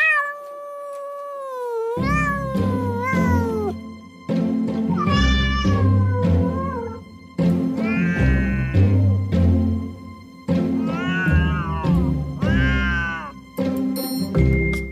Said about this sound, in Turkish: Kediler.